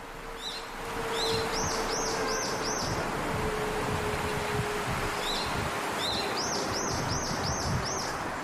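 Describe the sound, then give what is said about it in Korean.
Birds chirp in short repeated bursts of bright, rising notes, two rounds of quick tweets over a steady rustle of wind and leaves outdoors at the lone memorial tower for the Sampoong disaster victims, in the quietest corner of the Citizens' Forest park, with no one talking. “홀로 서 있는 유령탑에 이르자 새들이 방비해졌습니다.”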